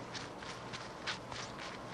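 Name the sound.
running footsteps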